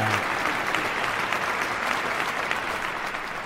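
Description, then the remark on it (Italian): Steady applause from a studio audience for the host's escort of criminal defence lawyers, a dense wash of clapping that holds at an even level for the whole few seconds with no voices over it. “Un applauso alla mia scorta di avvocati penalisti, pronti a difendermi dalle querele.”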